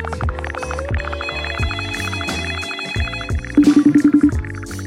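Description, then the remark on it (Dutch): Phone ringing on an outgoing call: a steady electronic tonal melody, then a quick burst of about eight rapid, evenly pulsed rings near the end. No one speaks. “Ja, laat ze bellen.”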